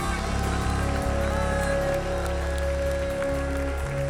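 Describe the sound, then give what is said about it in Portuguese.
A church audience claps in praise to the Lord in a steady, dense wash of applause over a sustained keyboard chord and bass notes, with no clear voices standing out. “Vamos dar um lindo aplauso ao Senhor.”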